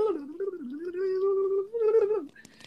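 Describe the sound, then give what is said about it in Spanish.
A cigar box guitar, made from a wooden cigar box, plays a sustained, buzzy slide note that bends up and down in pitch for about two seconds, briefly dipping before swelling again, with no voices. “Ese instrumento está hecho de una caja de cigarros de madera.”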